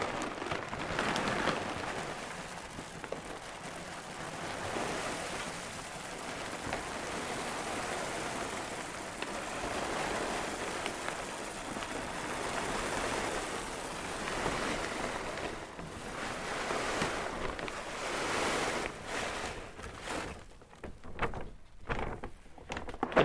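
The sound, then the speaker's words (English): Dry dog kibble pours steadily into a can about two feet tall, filling it to the brim before feeding the dog, a dense continuous rattling hiss that runs for about twenty seconds before thinning into a few scattered clatters at the end. No one speaks. “Pouring, it's right up to the brim with kibble.”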